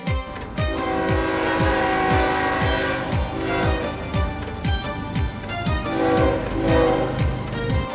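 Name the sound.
train arriving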